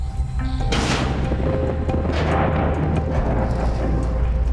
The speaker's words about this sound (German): Ein extremer Knall wie eine Sprengung unter Wasser ist nicht nur wegen der Lautstärke ein Problem.